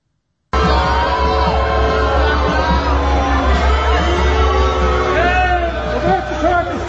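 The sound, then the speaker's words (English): A crowd in line for a Trump rally in Richmond, Virginia boos and jeers a passing truck carrying a Nikki Haley billboard: a loud sustained mix of overlapping voices, yells and rising hoots over low rumbling noise, continuing steadily for several seconds. “we need Nikki Haley on it being booed while driving past a line for the Trump rally in Richmond, Virginia.”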